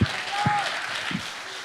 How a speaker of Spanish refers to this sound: Si ese aplauso es para el Señor, ay Dios.